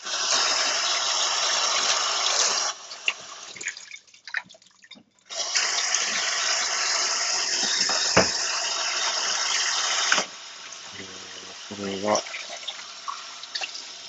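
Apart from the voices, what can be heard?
tap water running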